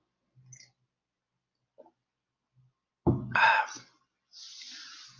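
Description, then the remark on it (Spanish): A few faint clicks and handling noises, then a gulp and swallow of a little water followed by a short voiced exhale and a breathy sigh. No one speaks. “Espera, que tomo un poquito de agua.”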